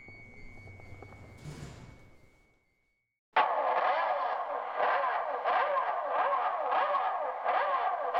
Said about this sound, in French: Ah, les motos de mon père.